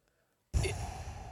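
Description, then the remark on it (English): After a short silence, a voice imitates Darth Vader's heavy respirator-style breathing: one long, loud, raspy breath that starts abruptly and holds steady. “Or breathe like Darth Vader.”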